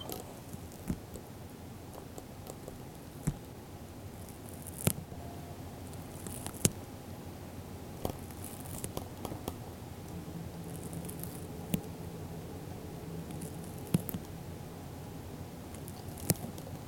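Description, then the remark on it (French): A snail eating a lettuce leaf: faint, irregular moist crunches and tiny clicking rasps, scattered unevenly over a low, steady hum, with no voices. “on entend un escargot dévorer une feuille de salade, un petit hommage à Knud et Victor.”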